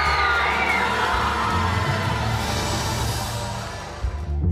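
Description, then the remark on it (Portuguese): A large crowd, including Russians in the audience, erupts in loud, sustained cheering and shouting as Joseph Blatter announces Russia as host of the 2018 FIFA World Cup. A dense wall of voices fills the space, gradually easing slightly toward the end. “Ele anuncia Rússia para a alegria dos russos na plateia.”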